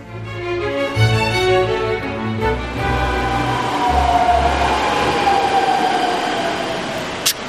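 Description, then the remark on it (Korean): A long subway train rumbles and rattles steadily along, a continuous low mechanical drone with shifting tones and a faint brakelike whine building midway, heard from inside the car. “아까 탄 건 버스고 이건 지하철이야 응. 이렇게 길쭉한 기차가 덜컹덜컹 간다 신기하지 응”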